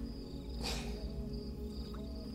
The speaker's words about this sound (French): Et euh, vous patientez, vous entendez euh, l'activité nocturne de, cette forêt.